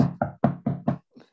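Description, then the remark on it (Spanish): A voice imitates knocking on a door: five quick, evenly spaced knock sounds, fairly loud, followed by a brief faint trailing sound. “Ese es el sonido de la puerta.”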